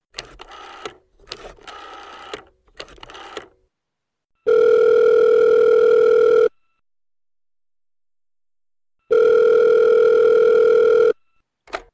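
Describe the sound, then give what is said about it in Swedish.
Quick bursts of telephone dialing bleeps, then an outgoing call's ringback tone: two long, steady, loud buzzing rings separated by a few seconds of silence, with no voices. “Jag tycker vi ringer upp”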